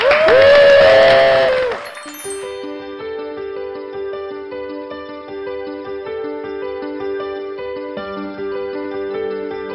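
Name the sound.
audience applause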